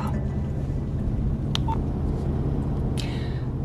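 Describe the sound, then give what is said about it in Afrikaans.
Electronic tones of a phone receiving a call on a Sunday beep a few times over a steady low hum, with a short bright chirp near the start and a longer warbling tone toward the end. “Tjoe, waar is my foon?”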